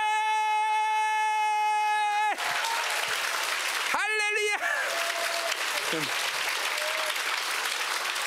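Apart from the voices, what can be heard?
audience clapping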